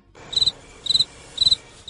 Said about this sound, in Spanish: por favor, el grillo.